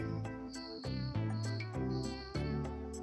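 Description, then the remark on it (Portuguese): A cricket chirps in steady, shrill bursts over a continuous low hum, with no voices present. “Um grilinho que cantou agora, escutou?”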